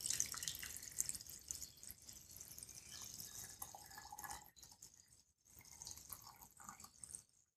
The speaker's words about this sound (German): So, und jetzt füllen wir das Ganze einfach mit Wasser auf.